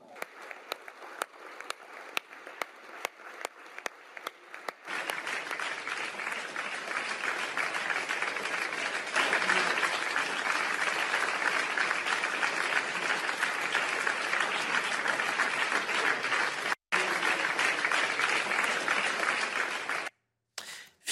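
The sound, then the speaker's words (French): Scattered individual claps build within a few seconds into loud, sustained applause from a large standing crowd giving a minute of applause to citizens, a dense steady roar of clapping that continues with brief breaks near the end. “Je vous demande de vous lever et de leur faire une minute d'applaudissements.”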